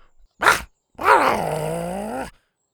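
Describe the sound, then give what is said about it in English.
An annoyed, pudgy Triceratops named Scoot growls as she is scooped up: a short gruff snort, then a long, loud, throaty growl that slowly sinks in pitch before cutting off. No one speaks. “The pudgy Triceratops peeked out at her annoyed and growled as she scooped her up.”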